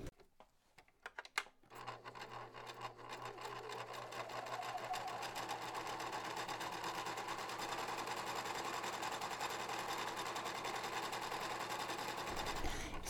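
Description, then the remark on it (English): A few soft clicks, then a sewing machine starts up and runs steadily for about ten seconds, its rapid mechanical chatter and motor hum continuous before stopping abruptly. “So I looked through the pile of mending that is deposited in my sewing machine.”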